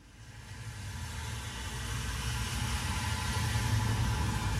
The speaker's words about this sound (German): Ja, Verkehr habe ich nämlich hier mal eben ausgewählt als Sound. Äh, den werden wir mal Wiedergabe, eben. Taste, Wiedergabe. Ja, das ist uns viel zu leise.